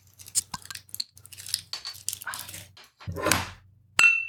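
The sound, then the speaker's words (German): Beer bottles clink together once in a toast, a sharp bright knock with a high ringing tone, after several seconds of scraping and handling noises over a low hum. “Nachdem wir angestoßen haben mit unseren Bieren”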